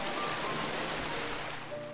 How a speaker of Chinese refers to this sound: 当你听到第三次海浪的时候，